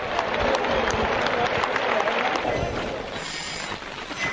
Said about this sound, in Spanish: Sí, y ahí avienta la muleta en un desplante de valor y sale caminando de manera tranquila, como si no pasara nada y la gente ya está de pie aplaudiendo a este torero español.